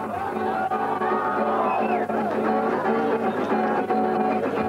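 A large outdoor crowd at a May Day rally on Sparrow Hills in Moscow roars and cheers continuously, loud, with shouts and babbling voices blending into a dense, steady wall of noise.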